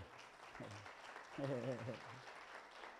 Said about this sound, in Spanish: Denle un aplauso a Dios por eso